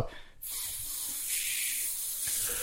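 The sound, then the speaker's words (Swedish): A voice imitates a gas leak in an apartment with a steady, breathy hiss that starts after a brief pause and holds for over two seconds, fairly loud. “Och det lät ungefär som man hade en gasläcka i lägenheten. Det var bara pös”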